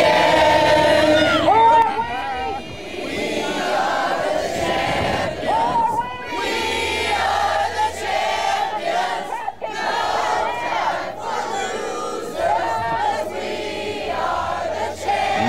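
A loud crowd sings together in the streets, many voices chanting a melody with shouts mixed in, sustained and dense for the whole stretch.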